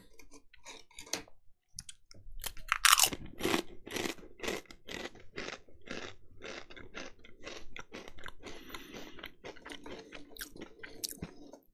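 Someone crunches a hard candy, a rapid series of sharp, brittle cracks and grinding bites that continue steadily for several seconds, with no voices.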